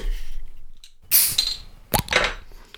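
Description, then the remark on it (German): A beer bottle cap pops open: a bright scraping burst, then a sharp metallic snap followed by a short fizzy hiss. No one speaks. “Aber ich glaube, jetzt wird es Zeit, dass wir da den Köppel, Köpsel oberhämmern.”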